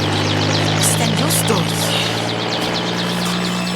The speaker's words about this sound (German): Gebt über Funk die Meldung durch, dass der Hubschrauber nach Süden geflogen ist.